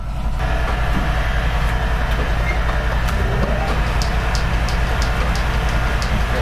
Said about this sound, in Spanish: para poder pasar luego allí a la pulidora, a la pulidora que tiene ruedas de lo mismo en corcho para que le dé brillo. la pulidora, la pulidora, la pulidora es esto, que con piedra pómez, pómez en polvo o en barro,